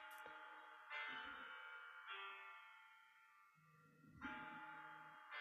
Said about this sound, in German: Hörst du das? Ja, was im Hintergrund, ja. Ja, mein Telefon klingelt, aber.